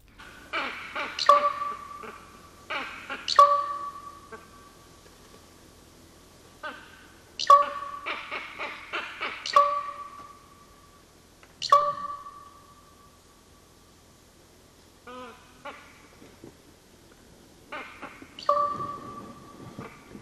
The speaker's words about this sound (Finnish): missä oli semmoinen korppi, joka niin kuin klonksautti hauskasti